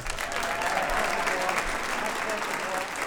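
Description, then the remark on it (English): Sustained audience applause fills the space, a dense steady wash of many hands clapping, holding at an even level for the whole few seconds. “Let's hear it up”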